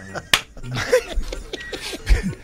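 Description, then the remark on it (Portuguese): A single sharp, loud open-hand slap cracks out near the start as a man spits in his hand and slaps a bald man's head, followed by voices talking and a bit of snickering laughter. “Chegou lá perto do careca, deu um, uma cuspida na mão e aquele tapa.”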